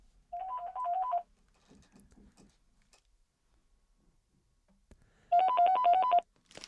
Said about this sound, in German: Ich gehe noch mal ran kurz. Telefon jetzt oder was? Das dritte jetzt. Kannst du es mal lautlos stellen oder so?